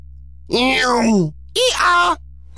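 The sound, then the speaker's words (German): A person imitates a donkey's bray with their voice: two loud, strained vocal bursts, a long falling one and then a shorter one, like a hee-haw. “Dein zweites Geräusch ist Esel.”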